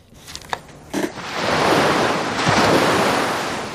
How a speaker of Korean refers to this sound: 이 소리를 일부에 나가는 노래 속에 숨겨놓을 거예요. 어제들 많이 헛짚으셨죠. 헷갈릴 수 있죠. 지금 들리는 이 파도 소리 잘 기억해 두셨다가 찾아봐 주세요.